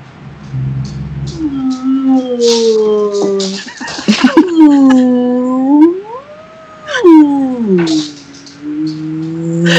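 A recorded whale call plays from an Alexa smart speaker asked to imitate a whale: long, sliding moans that rise and fall in pitch, broken by a brief crackly burst midway, fairly loud and with no one talking.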